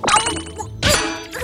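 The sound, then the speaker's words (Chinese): Two hard bites by a little red panda into a big round plastic apple picked from an apple tree, each a loud, sharp knock with a brief hollow ring, separated by a short pause. No voices are heard. “好硬，这是颗塑料苹果。”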